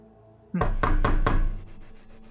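Four firm knocks on a door in quick, even succession, loud, ringing with a bit of echo before fading into quiet background.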